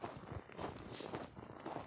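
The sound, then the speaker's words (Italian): Steady footsteps crunch along outdoors through snow on a sunny, very cold Saturday morning, several steps at an even walking pace, moderately loud with no talking over them. “mi sono detto dopo la colazione che fare, aspettare o andare e la soluzione migliore è sempre andare, andare all'aria aperta, camminare, parlare, riflettere”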